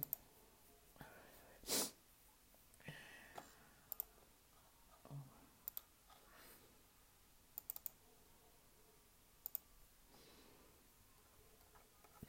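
computer keyboard typing clicks

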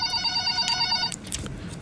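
telephone ringing

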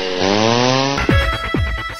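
chainsaw running

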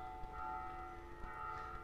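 church bell ringing

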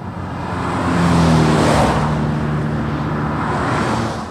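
cars passing by

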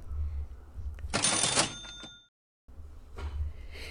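cash register sound effect

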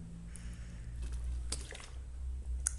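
drinking water

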